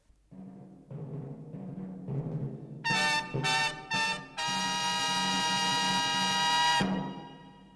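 Trumpets sound a brassy fanfare signalling the end of a battle: a few lower notes lead in, then three sharp, loud blasts and one long sustained note that cuts off abruptly. No voices.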